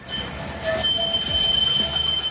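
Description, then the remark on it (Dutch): A tram's wheels squeal piercingly against the rails, sustained high-pitched tones sliding over a steady low rumble of the moving vehicle, loud with no speech. “Even de luisteraars waarschuwen, want normaal zin klinkt een tram natuurlijk zo”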